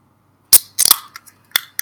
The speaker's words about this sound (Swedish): Och eftersom det var någon av oss här som öppnade en burk så börjar vi väl i det hörnet.